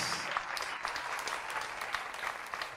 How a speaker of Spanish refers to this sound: Dele un gran aplauso al Señor una vez más por tres segundos.